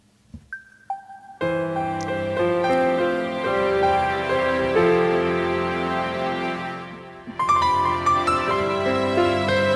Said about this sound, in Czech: Takže tuto chvíli uděláme takovouhle vsuvku. Já tady dám ještě takovouhle jako předehrávku, aby jsme to trošku oddělili.